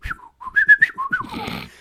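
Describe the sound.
A series of short, expressive whistles rises and falls in pitch like speech intonation, a whistled imitation of the talking of the Clangers puppet characters from the BBC show, fairly loud, followed by a brief breathy hiss.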